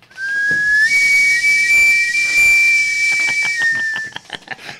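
Something deflating with a loud, steady high-pitched whistle over a broad airy hiss, holding one tone for about four seconds before sputtering out in short bursts at the end.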